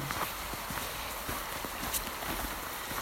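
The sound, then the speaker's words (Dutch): Horse hooves clip-clop at a steady walking rhythm, a run of evenly spaced hollow knocks over a constant hiss of outdoor background noise. “Hé, hey, brilduiker, paardje.”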